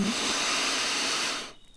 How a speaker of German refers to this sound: So wird ein bisschen komplexer. Das heißt, ich atme ein durch die Nase,